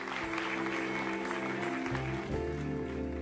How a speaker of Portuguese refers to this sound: E nós vamos terminar com um tema de louvor e será que nós podemos dar uma salva de palmas a Deus por aquilo que Ele fez neste dia?